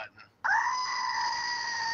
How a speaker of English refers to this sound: it deserves the screaming goat